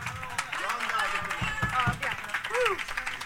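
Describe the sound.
Audience applause for a band's drummer from Puglia, during a live-streamed band introduction, crackles in a steady, dense wash of claps, with a few sharper individual claps standing out, while a voice talks loudly over it the whole time.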